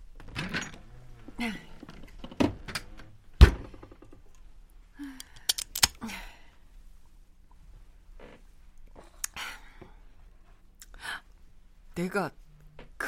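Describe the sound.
A refrigerator door opens with a few sharp clicks and a dull thunk, while voices talk intermittently around it.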